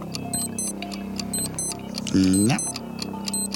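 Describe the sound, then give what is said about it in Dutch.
Steady rapid ticking from a timer-style alarm clock runs throughout, with a brief spoken word from a man partway through and a hum in the background. “Wekkertje”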